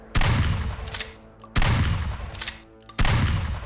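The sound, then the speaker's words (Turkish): Three loud rifle shots, fired into the air by a young man with a rifle coming out of a real estate office, ring out at evenly spaced intervals. Each is a sharp crack followed by a long rolling echo, with no voices. “Emlakçıdan elinde tüfekle çıkan bir genç bu kez havaya ateş açtı.”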